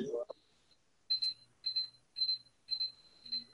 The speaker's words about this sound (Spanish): Eso, ah, eso que está sonando es la alarma de la... Austeridad. De la austeridad.